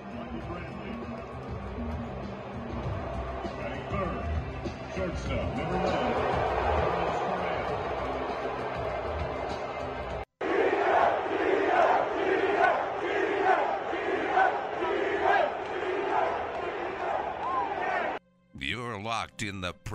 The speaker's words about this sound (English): Ah, uh, the sounds of baseball. Dodger Stadium. What a friendly place.